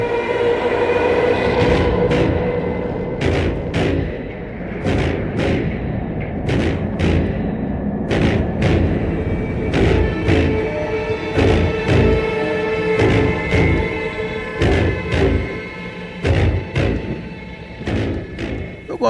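A loud industrial soundtrack cue: heavy metallic clanks and thuds strike in an uneven, pounding rhythm over a dense, grinding drone with sustained tonal hums, with no voices.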